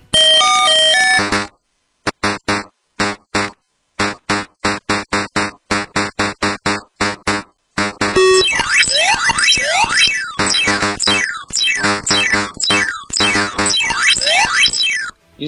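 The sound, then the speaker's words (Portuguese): Pac-Man arcade game sounds: a bright electronic jingle, then a rapid, steady run of short chomping blips, followed by loud, busy rising and falling synth sweeps and chirps. No one speaks. “Então vamos ouvir um trechinho aí de Pac-Man.”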